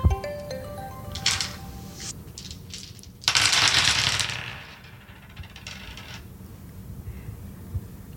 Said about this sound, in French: Accepterais-tu, pour finir, de lancer les dés dessinés avec lesquels je suis venue, d'en choisir un et de partager ce que cela t'inspire Oui, avec plaisir.